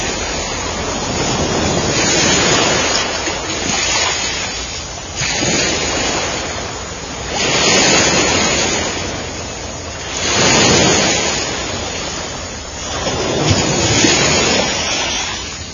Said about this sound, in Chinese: 你听听海的声音